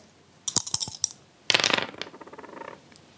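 A few sharp clicks, then a burst of rapid rattling clatter that tumbles and fades out as dice are rolled again across a hard table surface during a game, fairly loud with no talking.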